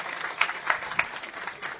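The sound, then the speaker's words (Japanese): Applause from an audience welcoming the author of a book, a steady wash of many hands clapping at moderate volume, with a few sharper individual claps standing out near the start and middle. “大きな拍手でどうぞ。”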